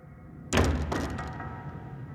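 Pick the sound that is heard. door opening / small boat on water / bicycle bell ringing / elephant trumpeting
door opening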